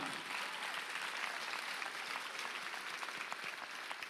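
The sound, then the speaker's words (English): A crowd applauds steadily, many hands clapping at once in a dense, even wash of sound that stays loud and constant without a break, with no voices standing out. “Clap your hands if you this.”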